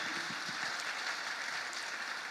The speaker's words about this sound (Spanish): Vamos a dar un fuerte aplauso a ellas que semana tras semana están aquí.